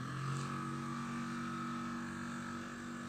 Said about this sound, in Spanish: Tú no sabes si yo estoy en un lugar de día, de noche, puedes intuir algunas cosas, como la moto que está pasando.